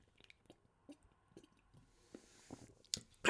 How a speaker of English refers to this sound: i take a sip of water here.